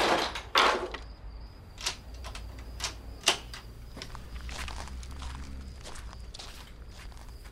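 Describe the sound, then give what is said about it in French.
A loud thump of a door closing, followed by a series of sharp mechanical clicks and rattles as it is locked, without any voices. “Je vais verrouiller la porte.”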